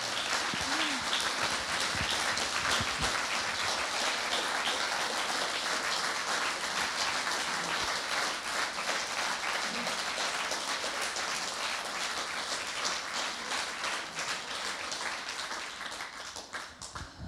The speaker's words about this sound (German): Ja, also ich finde, das braucht jetzt echt einen mega monströsen Applaus, bitte, oder?